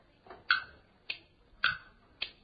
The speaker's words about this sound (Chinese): 哎，先说点快板吧，一点点来，大伙儿别着急。